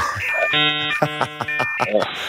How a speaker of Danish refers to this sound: Den her lyd. Skal lige se, om den kommer. Kan du huske, prøv at se den der modem-lyd.